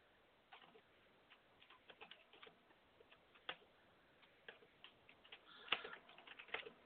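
Soft, irregular clicking of keys being typed on a keyboard, quick taps in uneven bursts with short pauses, quiet, with no voices.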